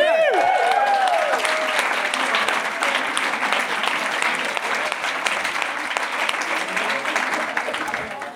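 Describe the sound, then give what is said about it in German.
A live audience at a Hossa Talk live show claps and cheers steadily for several seconds, a dense, loud wash of applause with a few whistles and shouts rising briefly at the start. “Ja, Applaus für euch.”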